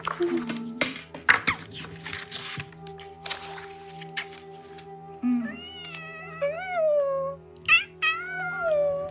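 A cat meows several times in drawn-out, wavering cries, clear, following a few seconds of rustling and shuffling handling noises.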